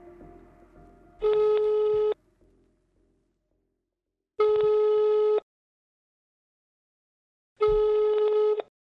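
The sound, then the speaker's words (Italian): A call to a mother's mobile and home phone rings out unanswered: three steady electronic ringback tones, each about a second long and separated by silent pauses of roughly two seconds, loud, with faint background rumble beforehand. “Così Omar chiama la madre, ma non risponde nessuno, né al cellulare né al telefono di casa.”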